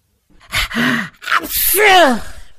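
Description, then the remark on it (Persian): A loud sneeze: a sharp gasping intake of breath followed by a noisy, voiced burst that trails off, with no talking. “صبر اومد صبر اومد این دفعه دیگه برای من نبود چطور برای تو نبود”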